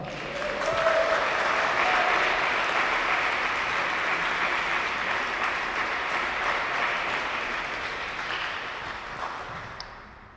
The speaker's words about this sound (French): On peut applaudir le pape François quand même.